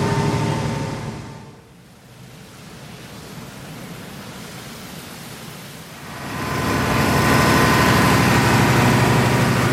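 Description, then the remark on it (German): The engine of a combined heat and power plant, driving a generator, runs steadily with a dense, rushing mechanical roar and a low hum, easing slightly quieter for a few seconds before swelling louder again. No one speaks. “So ein Blockheizkraftwerk ist im, Großen und Ganzen nichts anderes als ein Motor, der einen Generator antreibt, soweit, soweit ich das jedenfalls verstehe.”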